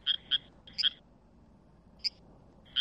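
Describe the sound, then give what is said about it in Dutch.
Sonified signals of a second plant responding to the first plant and warning of danger: six short, high chirping blips in irregular bursts, some in quick pairs, separated by pauses, over a faint low background hum. No voices. “Wat u eigenlijk hoort is dat ze elkaar waarschuwen over gevaar.”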